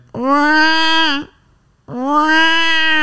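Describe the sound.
A person imitates a crying baby with two loud, drawn-out wails, each about a second long, separated by a brief pause.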